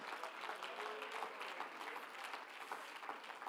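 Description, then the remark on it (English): A crowd of people clapping their hands together to give God praise, a dense, steady wash of applause that fills the space for several seconds without letting up. “Oh, somebody clap your hands and give God praise here today.”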